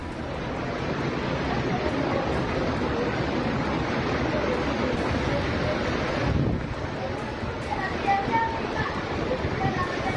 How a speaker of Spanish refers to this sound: En este video compartido ampliamente en redes sociales se dejan ver los estragos que dejó la fuerte lluvia en la ciudad de Aguascalientes, la cual ocasionó que varios automóviles fueran arrastrados por la corriente de agua en las calles.